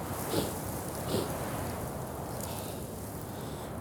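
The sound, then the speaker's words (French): Strong Saharan wind drives sand against a sand dune 50–60 metres high in a loud, continuous hiss, with a couple of brief gusty swells near the start and no voices, at 9:30 in the morning on 26 February 2019. “Et euh, je vais vous faire profiter un peu de ce vent saharien qui est assez consistant.”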